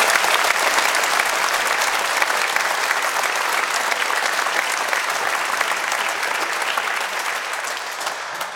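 Sustained applause from a studio audience in Munich, sent over a Skype link to a remote guest, a dense, steady wash of clapping at even loudness throughout, with no voices over it, tapering slightly at the very end.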